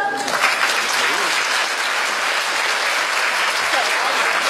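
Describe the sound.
Warm, sustained applause from a large crowd celebrating the launch of Zhong An Insurance, an internet insurance company, a dense, steady wash of clapping that stays loud throughout, with faint voices mixed in beneath it.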